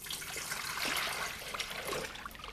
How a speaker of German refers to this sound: Echtes Wasser blubbert, gluckst und rauscht.